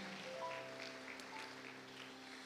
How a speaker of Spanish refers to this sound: La iglesia le puede dar palmas fuertes al Señor. Amén.